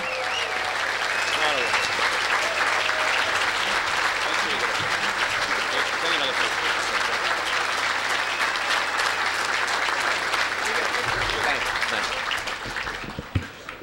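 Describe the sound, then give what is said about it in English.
A large Fox Cities area audience gives a standing ovation, applauding steadily for about fourteen seconds, a dense, loud wash of clapping with scattered cheers and shouts mixed in, fading slightly at the end. “If you'd all stand, let's clap.”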